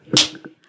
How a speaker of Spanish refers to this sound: Es, con el canto de Como cuando Haz de cuenta que es un golpe así, mira. ¿Notas la diferencia? Una cachetada